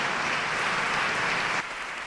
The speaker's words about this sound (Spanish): Se emociona el nuevo obispo en este momento, ¿no? Como no, al recordar a, su familia. Vamos a ver si, si puede seguir, pero bueno, emotivo también el aplauso.